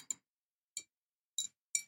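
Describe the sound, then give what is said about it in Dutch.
A glass bottle with a letter inside clinks several times as it's handled: short, bright, ringing taps at irregular intervals, fairly quiet, with silence between them and no voices. “Een glazen fles met een brief erin.”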